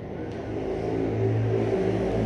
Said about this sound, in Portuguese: Mas, mano, por que, que tem essas motos voadoras, velho, na minha casa? Por quê?